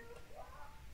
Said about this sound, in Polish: o, woła ktoś na polu. To jest, wiecie, dzisiaj nagrywam w śmigusa, dy, śmigusa dyngusa i ktoś tam chyba się wodą oblewa. Także jeżeli będzie słychać głos, to przepraszam.